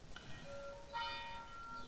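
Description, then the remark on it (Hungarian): A church bell tolls at noon, two resonant strikes about a second apart with long humming overtones ringing on between them. It sounds faint, with no voices. “Krisz Győre írta is, hogy hozzám a déli harangszó eltkor érkezik.”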